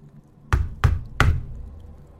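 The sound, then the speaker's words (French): Three sharp knocks in quick, slightly uneven succession on the window of a house. They are fairly loud, with a brief ringing decay and no voices. “tard le soir, à frapper aux fenêtres pour faire rire un peu”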